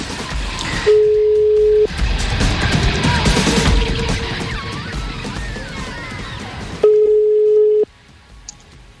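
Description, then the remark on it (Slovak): An outgoing phone call rings on the line: steady one-second ringback tones with long pauses between them, heard three times, the middle one muffled under loud rustling background noise. “No nič, ideme si vybaviť ten telefón a nech na to nezabudneme.”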